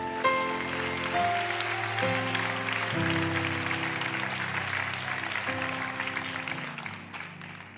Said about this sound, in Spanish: Si los quiere, aplauda fuertemente.